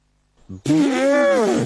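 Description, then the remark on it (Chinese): A voice imitates an elephant's trumpeting call: a single sustained, rising-then-falling tonal bellow lasting about a second, loud and strained, preceded by a brief low grunt. “呵呵，大象是怎么叫的呢？”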